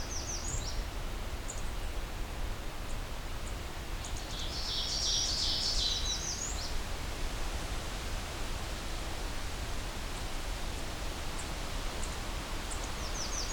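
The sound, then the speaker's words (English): Thin, high thwip and tick call notes of a black-throated green warbler, scattered and brief with a busier cluster midway, set against a steady hiss of background noise. “all those little thwip tick kind of calls come from the black-throated green warbler.”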